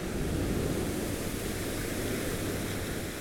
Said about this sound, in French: Ces bulles éclatent L'écume pétille vivement après l'impact. Une petite mousse blanche apparaît puis disparaît rapidement.